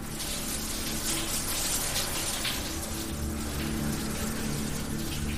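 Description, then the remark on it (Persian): Steady running water with a dense hiss from a hot shower spraying continuously while someone showers, holding an even level for the whole stretch with no voices. “پس ترسم و گذاشتم کنار رفتم زیر دوش آب داغ و با خیال راحت دوش گرفتم”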